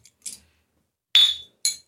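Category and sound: household object, glasses clinking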